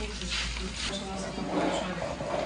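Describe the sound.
Butter sizzles and boils steadily while bread with poppy seed and milk is stirred and scraped in a bowl, with a voice murmuring faintly underneath.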